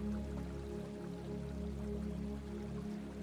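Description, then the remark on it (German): A small river babbles steadily and softly, an unbroken, gentle trickle with no pauses. A low, sustained drone hums along beneath the water. “hörst du das Plätschern eines kleinen Flusses.”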